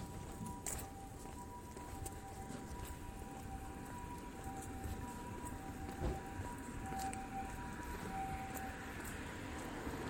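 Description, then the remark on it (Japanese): An ambulance siren wails steadily on a street with heavy traffic in Tokyo, its tone sustained for several seconds over a constant wash of busy street and traffic noise. “ちょっと車を車が通り過ぎるので、ね、結構交通量が交通量が多いんですよねまたまた救急車があるね”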